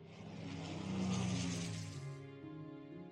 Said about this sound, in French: Il a des ailes, des hélices et un très gros moteur. C'est grâce à ça qu'il peut voler dans le ciel.